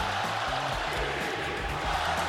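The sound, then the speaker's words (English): A large arena crowd of Sacramento Kings basketball fans at a Kings–Clippers game in Los Angeles yells together in a dense, continuous roar, loud and sustained for the whole moment, with no single voice standing out. “Listen to Sacramento fans in LA.”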